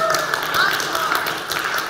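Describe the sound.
An audience claps steadily for about two seconds, a dense, even patter of many hands with some voices and cheers mixed into the applause.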